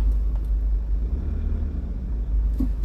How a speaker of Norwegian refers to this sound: Til krysset her. Kommer det en lett motorsykkel. Å oh, ja, den svingte til høyre.